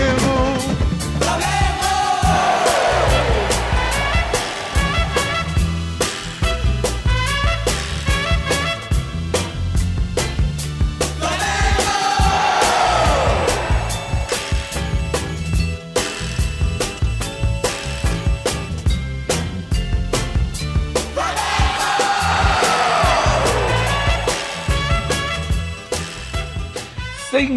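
Flamengo football supporters chant together in a stadium, a huge crowd singing loudly in unison. The chant repeats in a steady cycle, swelling every ten seconds or so, and never lets up.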